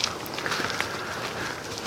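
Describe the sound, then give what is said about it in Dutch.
Several people walk along at an easy pace, their footsteps making soft, steady scuffing and crunching sounds against a wash of outdoor background noise. “Dus waar we nu naartoe lopen, dat is voor mij persoonlijk een, een bijzondere plek.”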